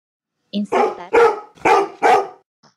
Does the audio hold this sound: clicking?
no